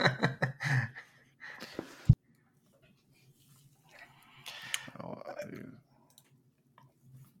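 A quick run of sharp, close clicks like a computer mouse being clicked, followed by a sharper tap, then quiet and some faint shuffling and breathy noise.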